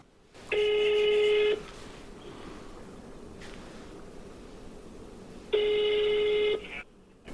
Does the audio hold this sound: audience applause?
no